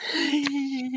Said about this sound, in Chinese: 此时此刻，就在困困跟前，又有七个鼻子下面正绽放出大大的哈欠，就像盛开的玫瑰一片。你会不会我一打哈欠你也打哈欠？